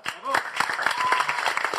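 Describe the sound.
An audience applauding: dense, irregular clapping that keeps up steadily for the whole moment, with a few voices calling out over it.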